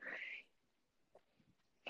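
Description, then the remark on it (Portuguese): A female dog barks: one loud, drawn-out bark at the start, a few faint short yips in the middle, then another sharp bark cut off at the end. “Ou se calhar, olha, a minha cadela começou a ladrar, que sonho.”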